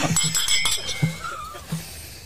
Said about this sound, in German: Nein, Moment, ich, bevor wir das machen, würde ich erst nochmal anstoßen.